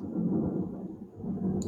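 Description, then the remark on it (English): Loud thunder rumbles low and steady, a continuous deep roll that holds for the whole moment without breaking into a sharp crack. No voices are present. “Th- loud thunder is loud.”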